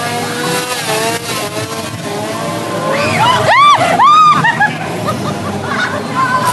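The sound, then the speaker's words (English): A chainsaw, carried by a clown chasing a woman down the street, revs in a few sharp bursts, its whine swooping up and down in pitch over a steady rumbling motor, fairly loud. “getting chased down the street by a clown with a chainsaw.”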